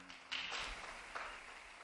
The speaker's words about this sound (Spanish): Hagamos un aplauso a la nueva Beata.